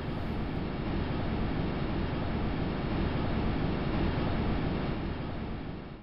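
A steady, dense roar of wind on Saturn's moon Titan, recorded by a microphone, low and rumbling with a hissy edge, holding constant loudness for the whole stretch with no voices or other sounds.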